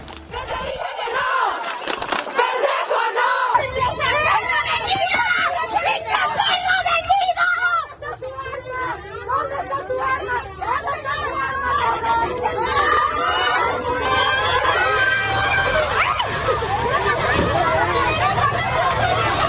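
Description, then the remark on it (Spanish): A loud, agitated crowd of protesters clashing with police in Mexico City, who try to stop them reaching the Zócalo, amid fire extinguishers and gas. They shout and yell over each other in a continuous chaotic roar, with overlapping voices, cries and bursts of commotion throughout. “que intentó evitar el paso de contingentes al zócalo.”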